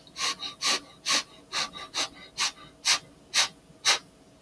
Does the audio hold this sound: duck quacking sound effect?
no